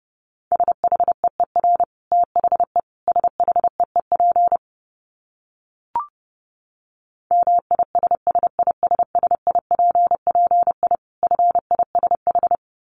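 A steady, mid-pitched beep keys on and off in rapid bursts of short and long tones, Morse code sent at 30 words per minute, with a brief click and pause in the middle.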